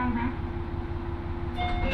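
A train on the Ōito Line in Japan, running from Itoigawa to Hiraiwa, rolling along its rails: a steady, heavy low rumble with a faint rhythmic clatter, a droning hum, and thin high whines emerging near the end. No one speaks.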